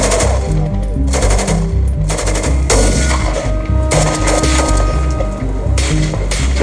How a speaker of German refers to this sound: Und dann gingen auch schon die ersten Schüsse los.